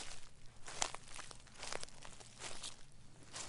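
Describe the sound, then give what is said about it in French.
Slow, heavy footsteps of a woman 26 weeks pregnant with twins crunch and rustle through dry dead leaves as she arrives with difficulty at the maternity hospital in Rennes in autumn 1992, each step a crisp crackling burst at a steady, plodding pace, fairly quiet with no voices. “la future maman de jumeaux, arrive péniblement en piétinant dans les feuilles mortes.”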